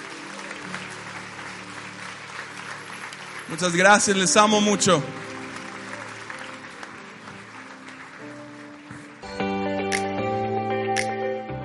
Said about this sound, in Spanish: Venga, darle un fuerte aplauso a Dios.